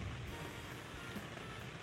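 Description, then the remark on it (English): Steady, soft rainfall at night hisses continuously with no breaks or distinct drops, a faint even wash of sound with no voices present. “A little bit of a rainy night.”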